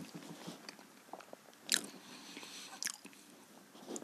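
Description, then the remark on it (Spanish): Crisp crunching of potato chips being bitten and chewed, with two sharp loud crunches standing out among softer, irregular chewing sounds. No one speaks. “Y el sonido ahí, ...HMR de papa frita.”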